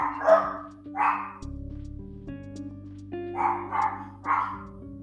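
A dog barks five times in two bursts, loud, with a steady low hum running underneath and no one talking.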